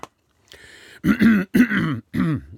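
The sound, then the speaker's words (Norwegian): Someone with a slightly hoarse throat clears it, a soft breathy start followed by three rough, voiced rasps in quick succession, fairly loud with no talking around them. “Litt grumsete i halsen i dag.”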